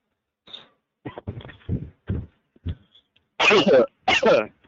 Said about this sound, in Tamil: என்னாச்சு இருமல் வந்துருச்சுப்பா அது நடுவில் எடிட்ல கட் பண்ணிக்கலாம்னு சொன்னேன்